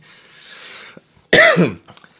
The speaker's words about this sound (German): Ich habe gerade kurz ein bisschen gehustet